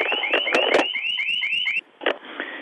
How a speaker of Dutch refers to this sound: Excuseer even, mijn, mijn alarminstallatie gaat daar. Klein ogenblikje hoor.